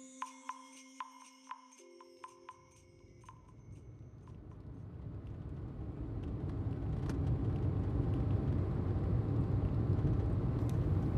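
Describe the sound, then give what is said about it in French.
A car driven slowly by a police officer rolls along a small road beside a thick forest on a cool late afternoon, its engine and tire rumble swelling steadily louder, after a few soft electronic pings and tones at the very start. “Le policier qui conduisait roulait lentement, recherchant du regard le moindre indice.”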